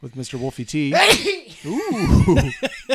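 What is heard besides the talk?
a loud sneeze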